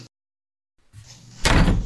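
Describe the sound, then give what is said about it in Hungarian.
A door bursts open: after a brief silence comes a low creak and rumble, then a loud, sudden bang with a rough, noisy crash that carries on to the end. “Az ajtó kivágódott.”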